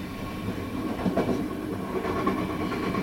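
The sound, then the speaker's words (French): A train to Paris rolls steadily along the rails, a continuous low rumble with faint rhythmic clacking and a thin tonal whine above, with no voices. “je suis montée dans le train pour Paris et changé de numéro de téléphone”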